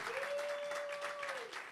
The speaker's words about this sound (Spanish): Un aplauso.